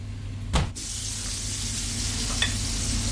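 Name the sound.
butter sizzling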